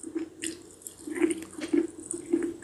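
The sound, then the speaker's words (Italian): Wet chewing with soft squishing bites repeating roughly every half second, moist and sticky, with no one talking over it. “Continua a masticare, no?”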